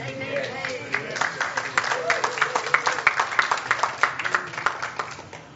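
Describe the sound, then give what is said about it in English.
An audience applauds the Supreme Court of the United States, with a steady patter of many hands clapping in quick, uneven bursts, while voices call out and murmur underneath. “The, uh, the Supreme Court of the United States ought to be applauded.”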